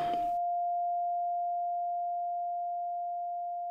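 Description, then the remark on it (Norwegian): A brief burst of noise cuts off into a steady, pure tinnitus-like ringing tone that holds alone for several seconds, fading very slowly without wavering. “Da har jeg fått tinnitus.”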